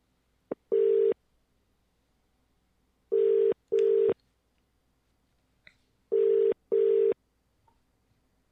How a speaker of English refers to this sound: So uh, let's call and see if, if they pick up.